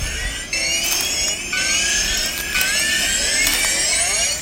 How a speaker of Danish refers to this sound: Nu kommer der kraftigt en bil bagved. Ja, det synes jeg er uhyggeligt.